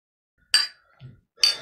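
glasses clinking

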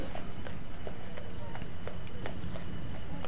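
horses walking

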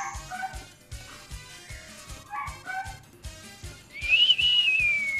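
dog whining or howling

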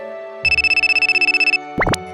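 phone ringtone

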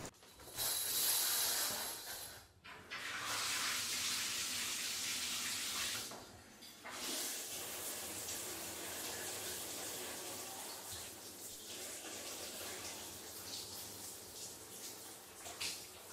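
shower running

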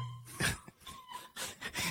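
dog in the background

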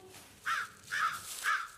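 bird cawing

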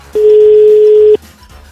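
telephone call dialing tone

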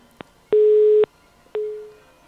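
phone busy tone

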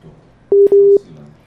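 telephone dialing tones

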